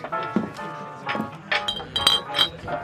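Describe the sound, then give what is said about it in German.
Glass bottles clink together several times at an irregular pace while drinks (butterbeer, mead and firewhisky) are being served, each bright tap leaving a short high ringing tone, with a soft background murmur between the knocks. “Oh, die Flasche ist schon wieder leer.”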